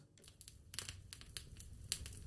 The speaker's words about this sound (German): Okay, das Feuer ist an.